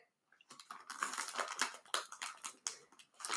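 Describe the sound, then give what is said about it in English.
Rapid, uneven keyboard typing with dense clicking keystrokes, moderately loud, continuing steadily for a few seconds after a brief silent start, with no voices. “Who's typing?”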